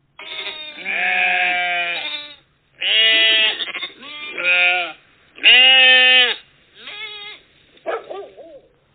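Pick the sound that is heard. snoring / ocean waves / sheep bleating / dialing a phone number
sheep bleating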